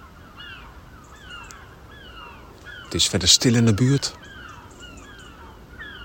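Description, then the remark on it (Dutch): Gulls cry out again and again high in the sky over a garden early in the morning, around 8 o'clock, their high, drawn-out calls overlapping in a steady chorus. Partway through, a man briefly speaks. “Behalve de meeuwen die schreeuwen. Die meeuwen die houden echt een concert.”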